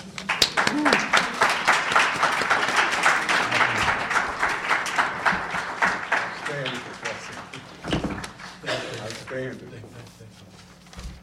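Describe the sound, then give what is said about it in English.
An audience applauds a professor steadily for several seconds, the dense clapping then thinning out as a voice begins talking over the last scattered claps. “Let's give Professor another great round of applause.”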